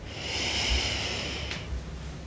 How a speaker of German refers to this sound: Auch dazu atmen wir tief ein und aus. Und bei jedem Einatmen nehmen wir wahr, wie sich der Brustkorb ausdehnt.